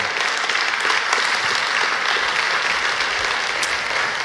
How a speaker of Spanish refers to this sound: Gracias por ese aplauso.